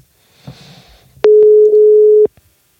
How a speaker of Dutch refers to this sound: Altijd spannend als zo'n telefoon overgaat.